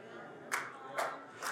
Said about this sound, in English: Thank you for the one clap.